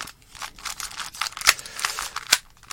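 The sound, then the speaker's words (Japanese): A puzzle cube being twisted, a rapid run of dry plastic clicks and scrapes with two sharper snaps standing out, no voices over it. “これ多分ね、3×3 のキューブよりいい音する。”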